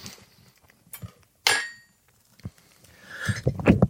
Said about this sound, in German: Oh. Gesundheit. Oh, da kann der Pfeffer